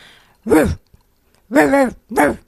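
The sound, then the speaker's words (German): A person imitates the deep bark of their small dog with three loud woofs: a short one, a pause, then a longer bark followed quickly by a third, with no other talking. “Mein Hund bellt so.”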